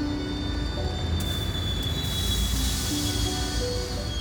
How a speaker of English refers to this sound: From outside came the sounds of hissing steam and squeaking metal. I looked through my window and saw a train standing perfectly still in front of my house.